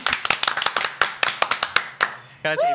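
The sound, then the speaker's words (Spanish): Scattered applause of sharp, distinct hand claps in an uneven rhythm, about a dozen in two seconds, welcoming a guest, a local photographer, in Nuevo Laredo, Tamaulipas, before a voice starts speaking as the clapping stops. “Denle un fuerte aplauso a nuestro invitado.”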